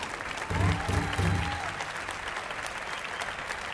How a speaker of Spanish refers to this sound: Y quiero presentar y quiero pedir un fuerte aplauso para estos dos grandes violinistas de la nueva generación, pero dos grandes de la historia del tango ya. César Rago y Manuel Quiroga.